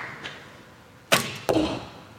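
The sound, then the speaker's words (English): An archer shooting against a clock looses a powerful arrow with a sharp, hissing snap, followed a moment later by a solid thwack as it strikes the target, leaving a brief ringing decay. There is no talking. “You know, he looks at that clock, takes his time, gets into his process, and just powers through. Man, it's so, such a powerful shot.”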